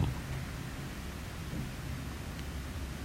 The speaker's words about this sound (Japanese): そして、後ろでは扇風機が、